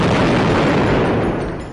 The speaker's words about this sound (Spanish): Aquella noche, la vecindad de los Kikiricuates fue sacudida por una trepidante explosión.